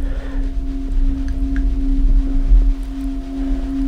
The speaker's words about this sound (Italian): Ah, questo è molto semplice, è una campana tibetana.